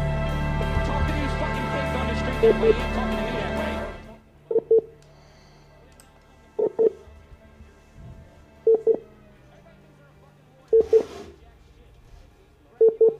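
A dense, noisy burst of sound gives way to telephone signal tones: short paired beeps repeating about every two seconds, clear and steady against a quiet line, like a busy or congestion signal. A phone call placed during a live radio show reaches a dialed number that is momentarily congested.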